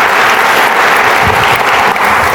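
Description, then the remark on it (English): A crowd applauding steadily to thank friends who shared with them that morning, a dense, loud wash of clapping that holds evenly for a couple of seconds with no voices rising above it. “Guys, help me thank these friends for sharing with us this morning.”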